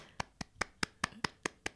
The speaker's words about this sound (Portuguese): Isto é o aplauso, e isto é o, o muito bom, isto é o 18, ou o 19, ou o 20.